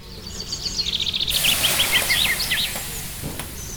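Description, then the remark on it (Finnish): Bright, twittering birdsong chirps on and off throughout, partly masked after the first second by the loud, steady hiss of a sauna stove that rushes in and lingers beneath the calls. “Joo, meillä on nyt juhannuksen erikoisjakso kyseessä ja mä ajattelen, että laitetaan sen kunniaksi vähän tämmöistä niin kuin teemaan sopivaa linnunlaulua ja kiukaan sihahdusta.”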